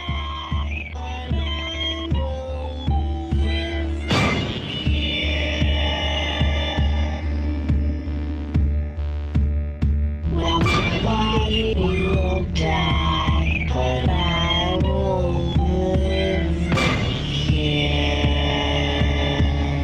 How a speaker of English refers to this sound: So now we'll listen to a 30 second excerpt of the final song uh, called ….